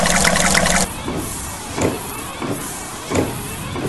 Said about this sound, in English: Uh, I'm gonna turn on the windshield wipers. Yeah, yeah, take that! Ace hits the windshield wipers and douses the lot lizard with water.